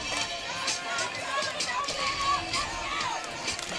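A large, fired-up outdoor crowd roars steadily on the Randolph County side at a high school football game against Wadley, a dense wash of overlapping voices and shouts holding at a fairly even, energetic level throughout, with no single voice standing out.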